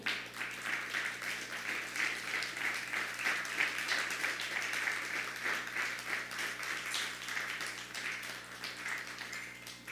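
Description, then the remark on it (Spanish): A crowd applauds steadily for the full stretch, a dense, sustained wash of many hands clapping at moderate loudness with no voices over it. “Un fuerte aplauso.”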